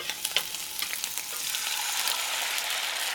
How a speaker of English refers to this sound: I reach for something that looks like a frying pan, but instead of being flat on the bottom, it's round like a ball. It's got a big handle. I put it on the stove, turn on the heat, throw in some veggies, and they start to sizzle.